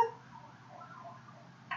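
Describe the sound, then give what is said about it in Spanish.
A siren wails faintly, its pitch rising and falling as an ambulance moves along a street in Ciudad Creativa, with low traffic rumble underneath and no one speaking. “Me sacó de onda. Ah, les dos personas en este, ambulancias, entonces no sé qué, no sé qué haya pasado.”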